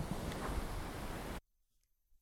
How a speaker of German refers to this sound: Und diese Atmosphäre von dem, von dem Strand und, und oh, toll.